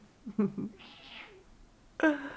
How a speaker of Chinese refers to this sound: 猫猫不要撒娇，不要撒娇